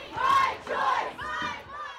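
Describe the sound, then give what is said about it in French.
A crowd of protesters at a demonstration in the United States, after the Supreme Court overturned Roe v. Wade, chants in unison, three loud rhythmic shouted phrases rising and falling, with voices blending into a steady collective roar. “la Cour suprême a décidé qu'elle remettait en cause la jurisprudence de l'arrêt Roe versus Wade qui défendait le choix des femmes d'avoir ou non un enfant, il y a eu des manifestations partout aux États-Unis, y compris à El Paso, la ville de Fleurs.”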